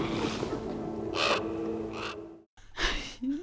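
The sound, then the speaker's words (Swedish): A crow caws three times, harsh rasping calls spaced about a second apart over a low humming drone, with a brief cut to silence before the last loud caw. “Jag har skrivit att det är en stark monolog och att vi får se kråkan igen.”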